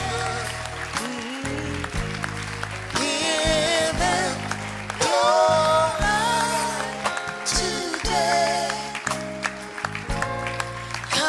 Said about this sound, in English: Clap for them, please. You want to join them? Come and give your life to Jesus. Come on to Jesus. You want to come? Clap your hands for them.